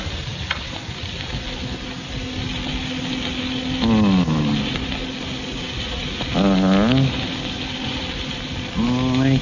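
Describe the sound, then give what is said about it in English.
A steady electronic buzz and hiss runs throughout, broken three times by warbling, rising and falling electronic whines from a radio locator being swept and tuned to locate a person. “Now, perhaps I can locate Danny with my new radio locator.”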